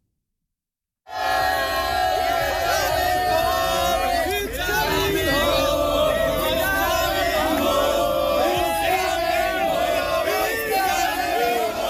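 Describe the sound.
A large crowd of English football fans at the World Cup in Qatar sings a chant together in loud unison, the massed voices steady and continuous after a brief silence at the start.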